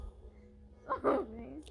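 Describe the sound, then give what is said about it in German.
A single short dog bark, moderately loud, rising out of quiet outdoor background and then trailing off, while out on an evening walk with a dog at about 8 pm. “und sie lässt den Hund gerade in einen fremden Garten pinkeln.”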